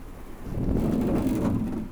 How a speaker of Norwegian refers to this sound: Skikkelig vind.